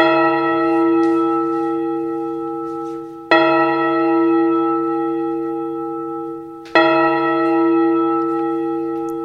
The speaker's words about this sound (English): Suddenly, as they stood together in an open place, the bell struck twelve.